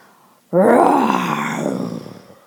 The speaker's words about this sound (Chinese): 森林的左边突然传来一阵很恐怖、很古怪的吼叫声